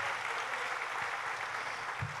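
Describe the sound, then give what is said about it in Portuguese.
An audience applauds the name of Jesus, a dense, steady wash of many hands clapping at once, fairly loud and continuous with no voices rising above it. “Aplauda mais forte o nome de Jesus.”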